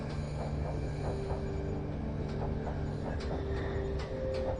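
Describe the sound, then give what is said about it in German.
A train pulled by a steam locomotive rolls steadily along the rails with a constant low rumble, periodic wheel clicks over the joints, and a faint metallic squeal, continuous without any voices. “Der Zug gleitet durch eine atemberaubende Landschaft, während die Sonne jetzt ganz am Horizont versinkt und die Nacht einläutet.”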